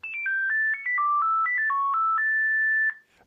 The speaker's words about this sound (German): Wir machen jetzt eine ganz kleine Zeitreise ins Jahr 1996, als unsere Telefonanrufe noch so klangen.